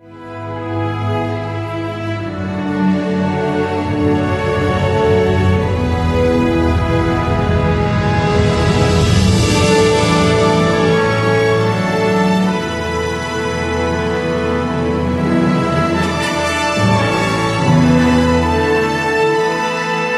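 Film score music from the film 13 jours (Thirteen Days) plays on its own, with sustained, layered tones that hold steady and swell to a fuller, brighter peak midway before settling back. No one speaks over it.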